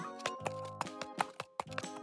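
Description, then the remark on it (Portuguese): Quick, evenly spaced footfalls patter along, like someone running, moderately loud against a steady musical tone in the background, with no voices. “Eita, quem é aquele que vem ali correndo?”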